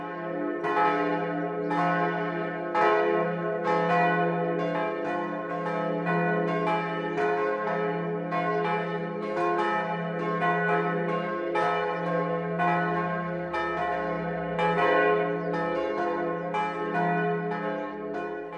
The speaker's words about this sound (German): Die Glocken der schönen barocken Kirche mit ihrem rosafarbenen Anstrich und der eleganten Kuppel auf dem Turm erschallen auch heute zum Dreifaltigkeitspatrozinium weit hinaus übers Isartal.